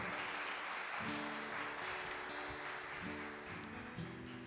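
An audience applauds the Lord steadily for several seconds, a dense wash of clapping from many hands, with sustained keyboard chords playing underneath.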